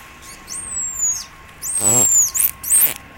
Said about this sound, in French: elle a donné son nom en dauphin, qui est ce fameux sifflement signature